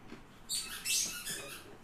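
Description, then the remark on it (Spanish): Dogs playing with squeaky toys: a burst of shrill, high-pitched squeaks and squeals repeats unevenly for over a second, moderately loud, with no talking over it. “Sorry por el ruido externo. Pues hashtag son los perros.”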